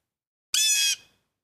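A single loud, harsh squawk from a large, splendidly feathered bird that has shot up out of its nest, lasting under half a second before cutting off, with nothing else around it.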